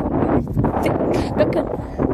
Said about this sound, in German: Digga, der äh, Wind kickt mal wieder sehr hart rein. Perfekt.